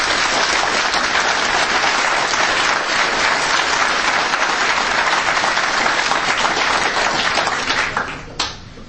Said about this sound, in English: And they deserve that round of applause because at least this is now being spoken about.